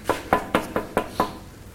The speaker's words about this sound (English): Behold, I stand at the door and knock.